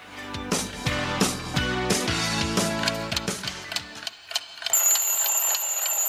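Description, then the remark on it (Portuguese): A short musical jingle gives way to a few sharp ticks, then a steady, shrill electronic alarm clock ring sounds loud until the end. “Lembre-se do despertador, do relógio de pulso para não perder a hora e do relógio de parede em sala de aula.”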